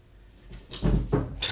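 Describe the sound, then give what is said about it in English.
A cat falling and tumbling against furniture: a heavy thud followed by a couple of quicker knocks and scrapes within about a second, with no voices. “That's my cat falling.”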